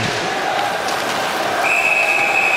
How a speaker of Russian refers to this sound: и свисток арбитра. Шайба была у Андронова. А Ковальчук нарушил в это время правила. То есть мы атаковали, и вот а наш капитан э, совершил подножку.